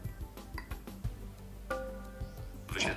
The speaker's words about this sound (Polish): Brzdęk. Zdaje się, że załadowały mi się nowe wiadomości.